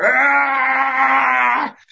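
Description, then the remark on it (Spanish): A single loud, sustained yell held for nearly two seconds, strained and bleat-like in tone, then cutting off abruptly into near silence. A person shouts into an open toilet bowl to release tension. “Eh, abrir la taza del baño ya, y gritarle al excusado, ¿no?”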